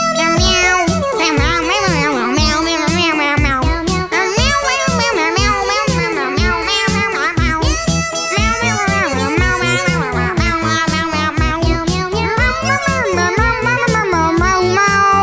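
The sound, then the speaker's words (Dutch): A festive English-language Christmas pop song plays loud and steady over a regular beat, its melody carried by high, wavering meow sounds in place of sung words, the cat-like cries repeating continuously throughout. “Even luisteren naar een voorbeeld even mee miauwen met een Engelstalig kerstliedje.”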